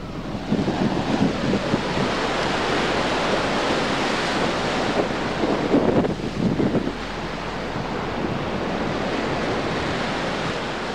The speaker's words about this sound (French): Ah ouais, alors je me souviens d'Engor, e, c'est euh, le côté complètement sauvage, euh, les vagues qui, euh, qui s'éclataient sur les rochers, c'était. Waouh, on en prenait plein les mirettes là.